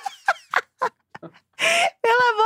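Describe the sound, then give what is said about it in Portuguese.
A person imitates a pigeon's cooing: a quick series of short, clipped throaty bursts, then two longer, warbling coos that end the sequence. “o perfil da pomba do Twitter que todo dia twitta. Prr, prr.”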